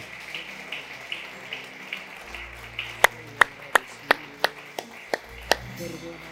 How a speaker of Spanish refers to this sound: Junte sus palmas. Fuerte, fuerte ese aplauso. ¡Wow!